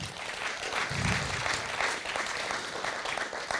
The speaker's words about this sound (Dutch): Van al die mensen vanaf tien jaar geleden laten we een ongelooflijk applaus geven.